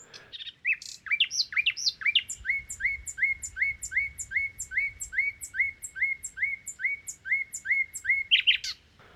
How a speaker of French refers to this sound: Rossignol à quatre microphones. Dans cet exercice, nous allons pouvoir écouter euh, le même rossignol enregistré euh, avec deux microphones cardioïdes euh, dans la première séquence et deux microphones omnidirectionnels dans la deuxième séquence.